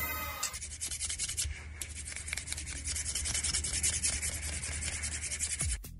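Someone scratching their armpit, played as the mystery sound in the El Sonido Misterioso guessing game: a steady, dry rasping scratch that keeps going for about six seconds, fairly loud and unbroken, with no voices.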